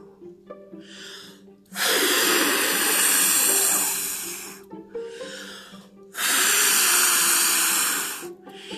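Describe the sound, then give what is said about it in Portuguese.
A storyteller imitates the big bad wolf of The Three Little Pigs blowing hard at the pigs' house: two long, loud, breathy gusts of air, each lasting a couple of seconds, with short softer breaths between them. “Mas o lobo soprou.”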